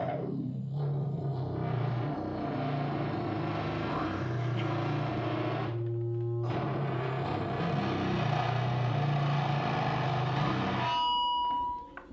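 A harsh, heavily distorted growl drones continuously, buzzing and engine-like, with a brief dip partway through before cutting off abruptly near the end; a recorded growl sent through a distortion effect.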